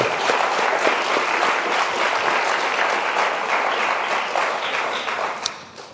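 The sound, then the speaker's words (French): A conference audience applauds the speaker steadily for several seconds, a dense wash of many hands clapping that holds loud and even before gradually thinning and fading out near the end. “Je crois qu'on peut l'applaudir de ce côté-là.”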